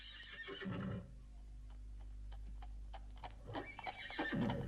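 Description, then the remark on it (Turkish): A horse coming this way whinnies loudly, then a series of sharp hoof clip-clops ticks along steadily before a second drawn-out neigh rises near the end, without any talking. “At bu tarafa geliyor galiba.”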